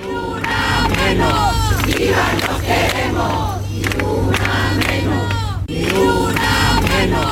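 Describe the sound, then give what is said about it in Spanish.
A large crowd at a protest rally condemning the killing of women in El Puerto de Santa María, Cádiz, Spain, chants together in rhythmic waves, many voices shouting in unison with steady, repeating cadence, loud, with a low constant rumble underneath and a brief pause before the chant resumes. “se está investigando otra en el puerto de Santa María en Cádiz, que es desde donde oían la manifestación.”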